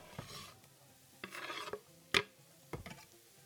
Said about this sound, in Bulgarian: Запържвам, докато всички продукти са омекнали, а някои от тях дори са придобили и лек златист цвят.